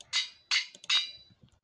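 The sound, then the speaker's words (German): Three sharp hammer blows ring out in a steady rhythm, each with a brief metallic ring, sounding muffled, from construction work outside at a neighbouring house. No one speaks. “Ja, sonst haben wir draußen bei mir auch ein paar Bauarbeiten. Deshalb nicht wundern, wenn ihr irgendwas von draußen halt hört.”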